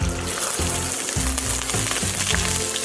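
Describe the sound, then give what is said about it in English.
Mustard seeds crackle and sizzle in hot oil in a heated pan, a steady dense hiss with scattered sharp pops throughout, alongside a low rhythmic hum repeating in pulses underneath. “After the mustard seeds crackle, we'll add some cumin seeds, some curry leaves, then some chopped onions.”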